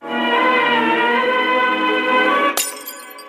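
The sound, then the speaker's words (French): A short jingle: a bright, sustained chord holds for a couple of seconds, then a sudden crash like shattering glass cuts it off and rings out briefly. No one speaks. “Jingle.”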